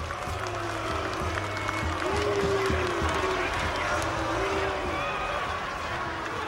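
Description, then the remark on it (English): An audience at the Cook County Jail boos loudly and steadily as an official welcomes the sheriff and the chief justice of the criminal court while the band tunes, a dense roar of many low, drawn-out voices with some sliding hoots rising above the wash of noise throughout. “And this is, of course, met with loud booing from the audience.”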